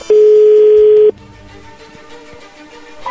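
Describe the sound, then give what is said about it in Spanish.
A telephone line ringing after dialing: a single steady, buzzy tone holds for about a second, fairly loud, then cuts off, leaving a faint hum on the line. No one speaks. “Ahí está marcando, no haga ruido, por favor.”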